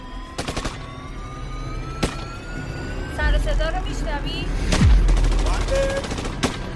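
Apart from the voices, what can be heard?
gunfire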